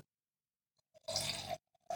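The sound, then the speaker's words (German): Chardonnay wine pours into a glass in a short, gurgling burst of about half a second, followed after a brief pause by the start of a second splashy pour. No one speaks. “Reich mir gerne dein Glas. Schenk mir noch ein bisschen was ein.”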